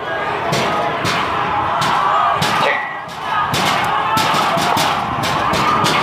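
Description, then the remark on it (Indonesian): Repeated heavy bangs and thuds as a crowd of university students pounds and kicks at a door of the DPR parliament building in Indonesia, forcing their way in, on Tuesday 24 September 2019. The bangs strike in an irregular rhythm over a constant loud roar of many voices. “dan itu suara dari uh, gebrakan atau tendangan-tendangan yang dilakukan oleh sejumlah mahasiswa.”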